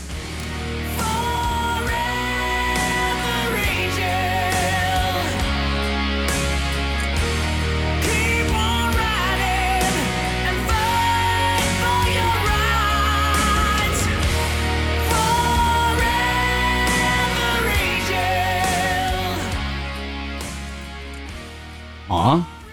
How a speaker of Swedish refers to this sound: Jag tycker den är jättetrevlig. Ja. Det, det, alltså, det är ju rock. Ja. Rock går alltid hem.